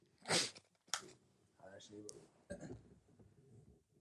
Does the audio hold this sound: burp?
yes